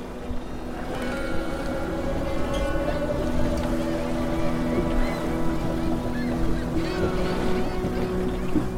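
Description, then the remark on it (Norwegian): A boat's engine drones steadily as the vessel travels north across water, a continuous low hum with rushing water and wind noise layered over it, fairly loud throughout. “Så når hun blir gammel nok, setter hun seg på en båt mot nord.”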